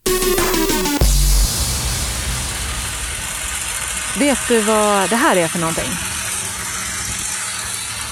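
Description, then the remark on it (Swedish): The engine of a SmartROC 340 surface drill rig runs with a steady, dense roar and hiss throughout, holding an even level while a person briefly speaks over it partway through. “Ja, det är väl en, eh, en borrvagn.”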